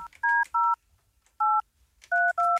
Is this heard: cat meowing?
no